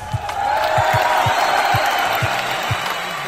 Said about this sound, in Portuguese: Pedro Amorim botar aplausos nesse momento.